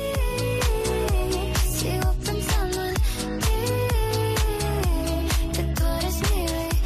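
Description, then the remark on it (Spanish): A catchy, upbeat pop song plays loud, driven by a steady pulsing kick drum under bright melodic layers, with no one talking over it. “Y desde luego esta canción se está escuchando, es súper pegadiza y suena así”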